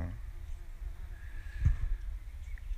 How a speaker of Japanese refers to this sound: 今ハエが2匹上に乗って食ってますね作ってるんですよねこれは。もう1匹来て3匹もう夢中。